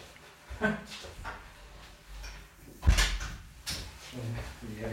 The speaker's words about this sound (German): Ich mache gerade mal die Tür zu, weil der Drucker arbeitet.